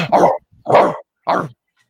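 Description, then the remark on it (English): A dog barks three times in quick succession, each bark loud with short pauses between, and no talking over it. “Oh, the Oh, There's the atomic dog right there.”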